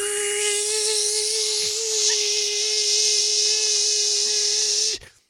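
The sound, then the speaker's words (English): A paper shredder runs with a steady, loud motorized whine and buzzing hiss for about five seconds, then cuts off abruptly. No voices are heard. “She was shredding paper and it was just I, all you could hear in the microphone is Zzz!”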